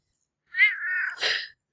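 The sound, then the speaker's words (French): A cat gives one drawn-out meow, clear, which ends in a short, rough, breathy burst. No one speaks, and there is silence before and after. “Ah, même le chat, il approuve quoi.”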